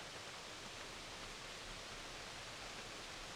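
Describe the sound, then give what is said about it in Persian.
A steady, even rush of water from the small Mandor waterfall near the Machu Picchu mountains fills the whole clip, pouring continuously with no voices and no pauses in the broad hissing flow. “به آبشار ماندور رسیدیم آبشار بسیار کوچیکی که حیات بسیار زیبایی رو در اطراف خودش به وجود آورده”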